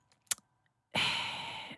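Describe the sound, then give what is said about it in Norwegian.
A quick sharp intake of breath, then a long, loud, rasping exhale blown right into the microphone, breathy with no talking. “Du må puste ordentlig i mikrofonen når vi lager Star Wars-podkast”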